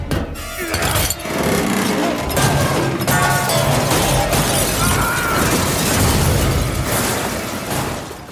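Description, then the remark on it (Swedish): Warehouse shelving toppled by Indiana Jones crashes down in a long, loud, continuous cascade of smashing and clattering debris, lasting several seconds with no voices. “Han välte hyllor, bokhyllor höll jag på att säga, men det var ju lagerhyllor.”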